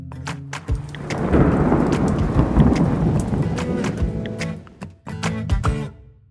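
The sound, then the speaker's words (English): A loud thunderstorm: deep rolling thunder rumbles over steady rain for several seconds, briefly drops off, then surges back with another crackling roll. “You can also see its famous Great Red Spot, a place on Jupiter where there are constant storms and hurricanes.”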